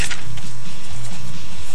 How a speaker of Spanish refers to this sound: Perdón el ruido por la libreta